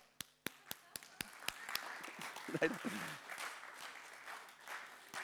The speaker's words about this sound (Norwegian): Du var i gang med å klappe. Ja.